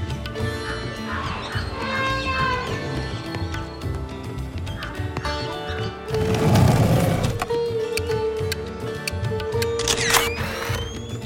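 An old photo booth (photomaton) takes a photograph: a sudden loud mechanical burst partway through, then a sharper click later, over a busy, continuous background of tonal sounds.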